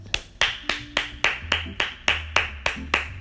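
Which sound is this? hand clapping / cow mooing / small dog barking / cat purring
hand clapping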